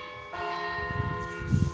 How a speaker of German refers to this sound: was sind die Glocken?